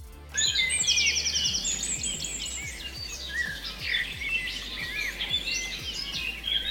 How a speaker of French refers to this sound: Oui, on arrête les oiseaux Blanche-Neige, ça va.